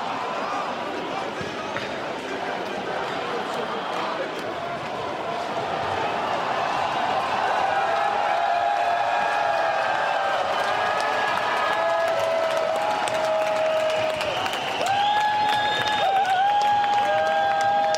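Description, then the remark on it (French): A rowdy crowd of rioters shouts over a steady roar while stones strike a BMW car dealership in scattered, sharp bangs and thuds, with shrill whistling tones rising midway and continuing to the end. “En revanche, je vous propose d'écouter un caillassage d'une euh, concession de voiture.”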